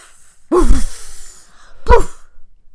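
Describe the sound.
A voice imitates a hot pancake pan put in a sink and doused with lots of water: a loud, breathy, explosion-like burst with a hissing tail, then a second shorter burst, with no other talk.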